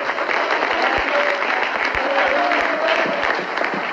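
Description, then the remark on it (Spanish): A church audience applauding for God steadily for a few seconds, a dense, continuous wash of many hands clapping at once, fairly loud, with a few faint voices mixed into the crowd noise. “Fuerte y aplausos si para él.”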